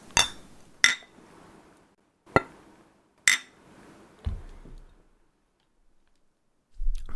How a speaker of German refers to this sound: Ja, ja dann würde ich sagen, stoßen wir mal an. Prost. Prost. Prost. Cheers.